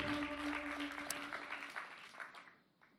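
Audience applause for a band: a dense, crackling wash of many hands clapping at once, holding steady and then thinning out toward the end, with a faint sustained tone beneath the first half.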